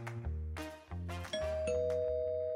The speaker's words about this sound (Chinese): 小陈奶奶听见门铃响起，便走到了门口。